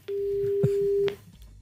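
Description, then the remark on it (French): A single steady telephone ringback tone sounds on an outgoing call to an agency near Marseille, at La Joliette, one clear pure beep lasting about a second before cutting off, with faint background noise around it. “On appelle cette agence qui se trouve du côté de Marseille.”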